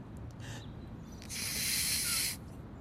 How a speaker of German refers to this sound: jetzt wo wir aufgewärmt sind, geht's weiter mit der Knalltüte. Ich habe hier eine Papiertüte vom Bäcker, die blase ich auf.